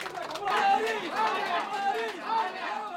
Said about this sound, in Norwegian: For i den lille landsbyen som morens familie er fra, langt sør i India, har folk benka seg foran TV-en etter midnatt. Der holder de plakater med ansiktet hennes på og jubler i det å tas i ed i Washington DC.